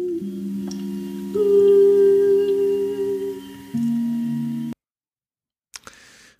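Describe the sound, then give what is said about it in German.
Muffled, hollow singing under water, using a special singing technique with an air bubble in the mouth: a few long held notes shifting pitch in steps, cutting off abruptly, followed by a pause and a short bubbly burst of noise. “Eine spezielle Gesangstechnik macht das Singen unter Wasser überhaupt erst möglich. Mit einer Luftblase im Mund.”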